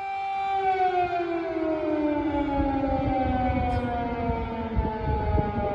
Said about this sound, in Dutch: Je hoort nog wel geregeld eh, de luchtalarmen.